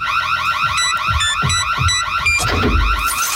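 A loud electronic alert sounds: a rapidly warbling, siren-like tone with high beeping accents, ending in a short whooshing burst. There is no talking.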